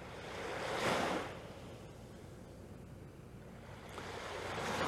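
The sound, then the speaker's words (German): Ocean waves wash onto a beach, with two soft surges rising and falling about four seconds apart over a steady hiss of surf. No voices are heard. “Du kannst aber auch einfach auf das Meer schauen.”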